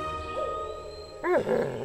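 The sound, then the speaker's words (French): Wolves call out with short, rising-and-falling yips and whines that come in two quick bursts after a moment of quiet, low rumbling forest ambience. No one speaks. “Mais un jour, alors que papa et maman loup cherchent une autre tanière pour la famille, ils traversent une forêt qu'ils ne connaissaient pas et entendent d'autres loups.”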